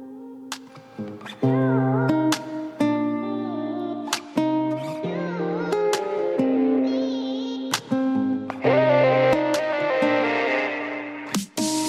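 A pop song intro plays loud and close, with sustained chords, sharp percussive hits every couple of seconds, and bright layered melody building toward the end, no vocals yet.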